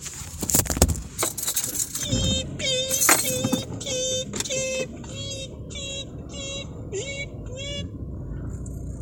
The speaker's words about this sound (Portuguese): Porque aqui tá um barulho de carro passando, mas eu acho que esse pode ser o nosso efeito especial, né?